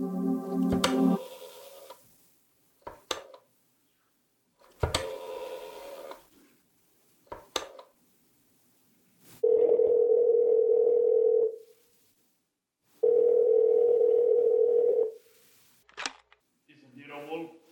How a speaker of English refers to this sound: I drove down to the document research laboratory on Vanderbilt and got such a shock that I grabbed the office phone and dialed Wolfe at once.